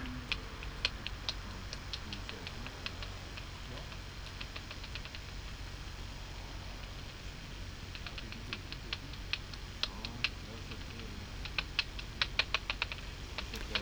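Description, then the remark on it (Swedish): Rapid dry clicks of northern bat echolocation picked up on a bat detector, coming in irregular bursts and trains over a steady low hiss, sharp, with no voices present. “Och det här är nordisk eh, det är nordisk. fladdermus.”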